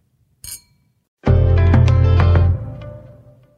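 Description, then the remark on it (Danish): Glasses clink together in a toast: a short, sharp tap, then a loud, bright ringing chime that holds for about a second before slowly fading away. No one speaks. “Skål.”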